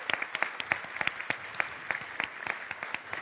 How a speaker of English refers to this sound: And so tonight, I'm, we're here to celebrate you amazing kids. And again, another round of applause for you kids, all of you winners.